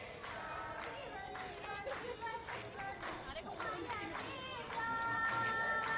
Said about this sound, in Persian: به نظر صدای جشن و پایکوبیه کمی جلوتر انگار همه دور کسی یا چیزی حلقه زدن هنوز درست مشخص نیست با هم یه آهنگ هندی میخونن و دست میزنن